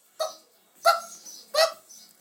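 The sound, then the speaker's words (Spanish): A person imitates a chicken's clucking with three short, throaty, nasal calls spaced evenly about two-thirds of a second apart, moderately loud, with quiet gaps between them. “Ya, ya lo del pinche cacareo.”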